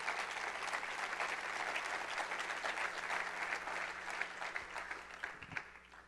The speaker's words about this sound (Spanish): Pues darle un aplauso a ese buen Dios que nos ama.